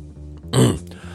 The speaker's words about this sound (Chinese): 何山站了半天，没人招呼他，于是咳嗽了一声